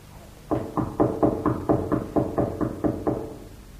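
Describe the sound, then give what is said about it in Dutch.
A quick run of about eleven firm knocks on a wooden door bolted from the inside, evenly spaced, with no voices. “Nou, laten we nog eens kloppen.”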